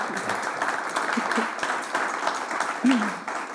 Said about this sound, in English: So I would suggest another round of applause for the two of them. Thank you so much for being here.